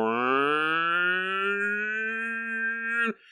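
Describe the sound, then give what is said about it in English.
A single voice imitates an air raid siren, holding one loud, droning wail that slowly rises in pitch for about three seconds before cutting off abruptly. “I can just imagine these sirens are going”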